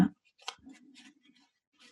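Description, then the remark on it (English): Quiet card shuffling: a few brief, papery scrapes and flicks after a soft thump, with a low hum running steadily underneath. “let's pick one let's shuffle all right tell me when to stop”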